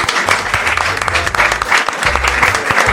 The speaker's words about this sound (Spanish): Muy bien, ahora sí, les pido un fuerte aplauso, por favor.